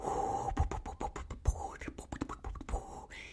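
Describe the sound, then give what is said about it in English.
A voice imitates wind buffeting a phone microphone while shooting video with a phone camera: a few seconds of breathy, rushing hiss broken by rapid popping thumps and crackles, with no words spoken. “So have you ever tried to like shoot video on your camera on your phone in wind and you think you got some awesome footage and then you go to listen back and it's like”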